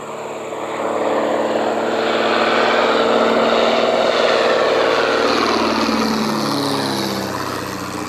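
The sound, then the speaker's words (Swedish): A propeller airplane on a first training flight drones overhead, its engine swelling steadily loud and then shifting pitch downward as it passes and begins to recede, with no voices present. “Det var en förunderlig känsla att sväva högt bland molnen, känna vinden mot sitt ansikte och inse att man inuti ett bräckligt flygplan kunde känna sig så osårbar och mäktig.”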